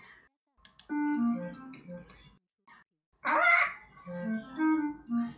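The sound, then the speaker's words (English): Granny Pig and Grandpa Pig's pet parrot squawks in two loud bursts separated by a brief pause, its harsh, raspy calls rising and falling with a voice-like, chattering quality. “Granny Pig and Grandpa Pig have a pet parrot.”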